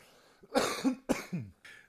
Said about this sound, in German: Entschuldigung, ich muss noch einmal kurz husten.